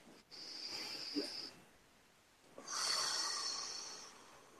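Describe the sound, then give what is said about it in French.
Two long, airy breaths taken as a guided breathing exercise, separated by a brief pause, the second louder and fuller, each carrying a faint high whistling edge. No one speaks. “on va changer ça alors, une respiration.”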